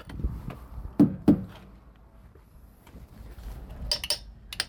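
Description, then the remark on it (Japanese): Sharp metallic knocks and thunks on a truck during the inspection done before it is driven, two strong hits followed by lighter taps and a couple of bright clinks near the end, with no talking. “トラックのトラックが走る前の運行前に行う点検の音なんですってそういうお仕事されてるんですかね”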